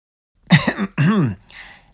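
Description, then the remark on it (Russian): A voice performs a polite little cough: two short, throaty voiced bursts, followed by a faint breathy exhale. No words are spoken. “Заложив назад руки, чтобы не креститься, он почтительно кашлянул и начал.”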